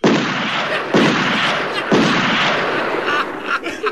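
Three loud cartoon shotgun blasts fire about a second apart in a reenactment of a Warner Brothers cartoon. Each is a sharp boom that trails into a rough, hissing rumble. Lighter crackles follow near the end. No one speaks.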